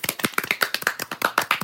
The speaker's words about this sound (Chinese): 来拍拍手。